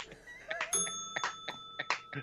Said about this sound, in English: Go ahead, ring the bell